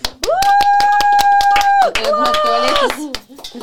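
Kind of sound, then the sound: crowd, people clapping hands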